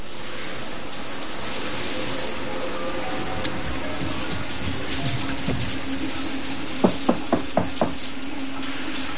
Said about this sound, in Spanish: En el aseo, ella se ducha.